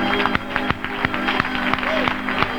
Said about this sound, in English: Would you clap your hands to him before we're seated?